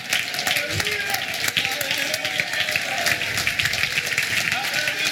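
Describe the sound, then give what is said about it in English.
An audience at a worship service stands and claps to Jesus steadily in a dense, sustained wash of hand claps, with cheering and voices mixed in throughout, loud. “Let's everybody stand together. Clap your hands to Jesus right now.”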